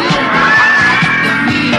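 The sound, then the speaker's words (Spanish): A loud, dense wall of audience noise from a TV series soundtrack, with many voices screaming and yelling at once and a few low thumps beneath, sustained for the whole couple of seconds. “con los gritos.”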